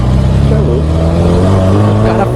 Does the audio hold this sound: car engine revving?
yes